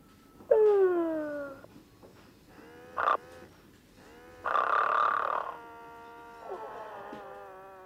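A toy figure snores in buzzy, electronic-sounding bursts: a falling groan, a short snort, a longer rasping drone, then a softer final snore, with no talking.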